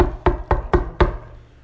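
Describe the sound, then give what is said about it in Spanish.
Four firm knocks on a door in a quick, even rhythm, fairly loud, each thud trailing off briefly. “A una persona que va al palacio del rey, toca la puerta,”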